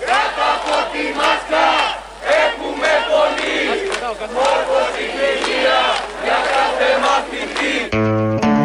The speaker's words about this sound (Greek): εικόνες και ήχοι από τους μαθητές που βγήκαν στους δρόμους της Αθήνας. Έχουμε πολλούς ήχους, ακούσατε τραγουδάκια για την Κεραμαίο, στην οποία ένας άλλος μαθητής με την τουντούκα την καλή να τρέμει.